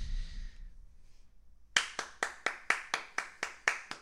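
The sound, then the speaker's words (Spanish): A quiet lead-in, then an applause effect: about ten sharp, crisp hand claps in a steady, evenly spaced rhythm, roughly two per second, with no voices. “aplausos, aplausos para Italia, evidentemente.”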